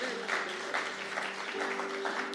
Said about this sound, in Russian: Вот сюда, не стесняйтесь. Вот еще, давайте еще аплодисмент.